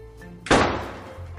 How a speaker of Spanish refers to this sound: Miró para adelante, para arriba, para abajo, para un costado, para el otro, y como no había nadie, cerró la puerta con mucha fuerza.